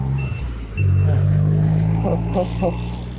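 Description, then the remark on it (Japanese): A loud car roars past on an ordinary road, not a cycling course, its heavy low engine rumble swelling suddenly and holding steady for a few seconds while a person speaks briefly over it. “はあ、めっちゃ山道のハイパー上り坂だったんで、もう降りてね、行って、今サイクリングコースじゃなくて普通のシドみたいなところに行ってるんですけど、ものすごいうるさい車だってきますね。”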